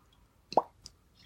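A single sharp cork pop rings out as a wine bottle is opened with a waiter's knife, fairly loud, followed by a faint softer click a moment later, with no talking over it.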